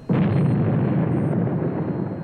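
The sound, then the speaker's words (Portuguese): A single loud plasma bomb explosion bursts in abruptly, then rolls on as a heavy, sustained roaring rumble that barely fades over the next two seconds, with no voices. “Não se preocupe, o satélite não pode ser atingido pelas bombas de plasma.”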